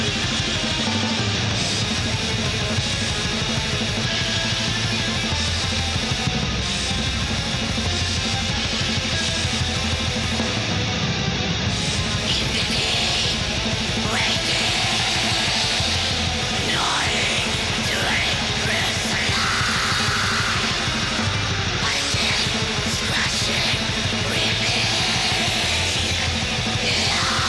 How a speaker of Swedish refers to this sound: Karaktäristiskt 90-tals väs skrik.